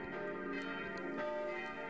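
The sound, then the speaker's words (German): A festive peal of four church bells swinging together in the steep tower of the church in Siegsdorf, three smaller ones cast in Erding after World War II, a dense wash of overlapping metallic tones with steady sustained harmonics and occasional fresh strikes, no voices present. “Im steil aufragenden Turm schwingen vier Glocken zum festlichen Geläut.”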